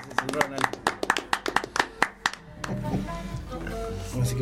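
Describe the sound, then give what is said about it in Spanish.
Brief applause: a quick run of sharp, fairly steady hand claps for about two and a half seconds, then the clapping stops and voices carry on. “aplauso maestro.”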